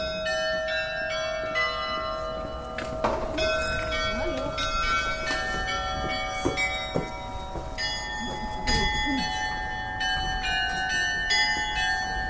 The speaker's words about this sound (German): Beim Rausgehen werde ich nicht nur mit einer Regenpause, sondern auch mit dem zauberhaften Glockenspiel der Walpurgiskirche beschenkt.